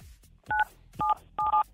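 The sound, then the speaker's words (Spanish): Three short telephone keypad tones beep in quick succession as a caller presses 977 on her phone during a call-in game on the radio station La Mejor FM 97.7, each a steady two-pitched electronic note; the last one briefly stutters. No one speaks, with only a faint low hum between beeps. “Oye, entonces presiona en tu teléfono el 977, córrele.”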